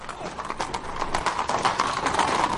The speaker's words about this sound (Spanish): Los atacantes se van. Varios soldados a caballo los persiguen.